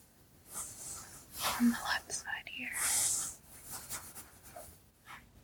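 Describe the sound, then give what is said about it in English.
Soft rustling and scratchy brushing sounds come in slow, uneven strokes as fingers run slowly through hair on the left side of the head, with faint whispering drifting in between. “And now, slowly here, I'm gonna run my fingers through your hair.”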